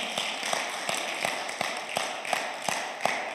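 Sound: audience applause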